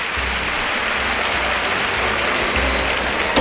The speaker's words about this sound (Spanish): Gran ovación del público. Sale Pepe Moral, Manuel Escribano, los tres matadores a, la vez, saludando la fuerte ovación